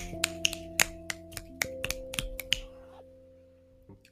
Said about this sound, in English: My snapping is getting sad because I'm trying to scroll through them all.